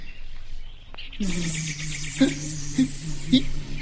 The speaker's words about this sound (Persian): اینا چیه چرا اینقدر وزوز میکنن هوا گرم بود و پشاها هم ولکن نبودن وزوز میکردن و این طرف اون طرف میپریدن روی سر و صورت حسنی می نشستن و او رو نیش می زدن یا می گزیدن